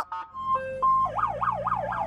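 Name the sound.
police car siren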